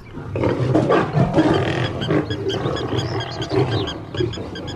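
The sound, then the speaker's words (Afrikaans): A lion roars and growls loudly, a deep rumbling, sustained snarl that swells and rolls continuously for several seconds with no one speaking. “Sê Haas leeu brul hard en grom.”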